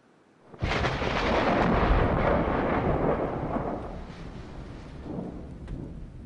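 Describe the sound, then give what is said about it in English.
A single loud thunderclap cracks in suddenly after a moment of silence, then rolls into a long, deep rumble that slowly fades but still lingers at the end. No voices. “The sound of thunder may indicate divine intervention or anger.”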